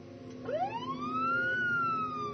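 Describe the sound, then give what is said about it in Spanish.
A police siren wails upward in a long rising sweep, then holds a high steady tone over a low rumbling background, loud, with no voices. “Al escuchar el ruido de las sirenas de policía, ella, junto a sus voces, decidieron salir por la puerta trasera de la casa.”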